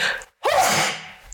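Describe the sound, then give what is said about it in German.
A single forceful sneeze: a short sharp intake, a brief pause, then a loud explosive burst of breathy noise that trails off over about a second. “Gesundheit!”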